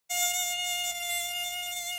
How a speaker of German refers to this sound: Wenn Alexandra Weikert dieses Geräusch hört, dann geht sie auf Mückenjagd.